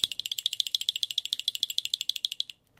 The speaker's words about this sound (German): Das ist ein schönes Percussion-Instrument. Damit kann man wunderbar das Zähneklappern machen. Klingt so wie Frieren, wir erinnern uns an das Geräusch, als der kleine Strubbel in das Loch im Boden gefallen ist.